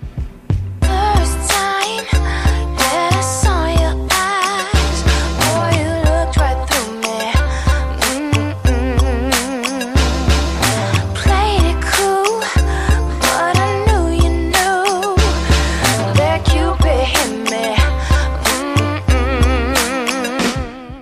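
An upbeat pop song with a female singer over a steady, punchy beat and bright instrumentation, playing loud and continuous throughout with no talking.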